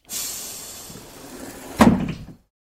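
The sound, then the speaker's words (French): The doors of large green buses open with a long pneumatic, suction-like hiss, then end in a solid clunk as they stop. The sound is fairly loud, with no voices. “On les dirigea rapidement vers des gros bus verts dont les portes s'ouvrirent avec un bruit de ventouse.”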